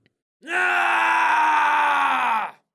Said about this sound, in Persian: غلام فریادی چون فریاد نخستین برکشید